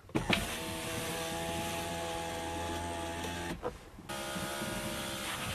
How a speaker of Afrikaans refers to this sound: maar die stelwee se uitnaardigheid lê snaaks genoeg by sy ruitse werking die bestuurder se venster maak nogal met 'n harde geluid oop en toe.